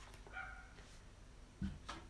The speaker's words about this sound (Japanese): なんか犬がね、ちょっとワンワン言ってますけれども、えー、ご了承ください。